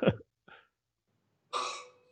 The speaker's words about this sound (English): you know, his belch right there just sounded like a dying choke.